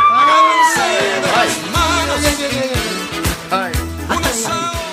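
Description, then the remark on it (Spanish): A man yells out loudly, a string of strained, drawn-out cries with swooping pitch that continue almost without pause for several seconds. “Pues, a ver, ¿cómo es el gritito?”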